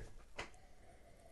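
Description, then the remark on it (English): A single quick, fairly soft sniff of a beer, a short breathy intake standing alone over a quiet background with no one talking. “But then, you know, as you sniff again, it's my second deeper sniff.”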